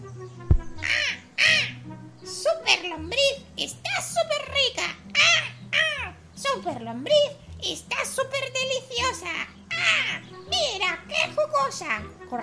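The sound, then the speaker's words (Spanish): A crow perched on a tree branch at night gives a rapid string of loud, raspy caws, one after another for the whole stretch, rising and falling in pitch over a steady low musical backing. “Durante la noche, el siniestro cuervo se posa en la rama de un árbol. Todos miran hacia arriba y escuchan sus temibles graznidos.”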